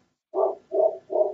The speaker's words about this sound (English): And y'all listening at home, please excuse the dog. Um, you know how it is. We give a warning for this.